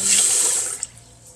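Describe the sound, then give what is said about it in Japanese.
Water runs from a tap for about half a second with a loud hiss while rice is being washed at home, then shuts off, leaving faint background noise and a small clink. “お米研ぎと読んだ本の話”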